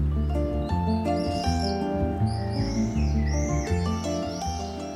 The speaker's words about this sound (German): die hochheiseren Zirpschreie der Mauersegler. Wer die hört, denkt unwillkürlich an warme Abende draußen, an Freilichtveranstaltungen, an Feste.